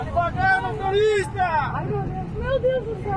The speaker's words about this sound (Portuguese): No Vale da Ribeira, a chuva também provocou deslizamentos de terra em estradas da região. Este vídeo feito de dentro de um ônibus mostra o desespero dos passageiros ao passarem pelos deslizamentos.